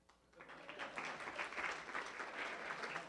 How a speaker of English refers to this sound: I'm here to give Las Vegas a world class ballet company resident company at the Smith Center of the Performing Arts, and you can applaud that.